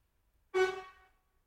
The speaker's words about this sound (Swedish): det är någon som tutar, men Dacke vet inte om han tutar på honom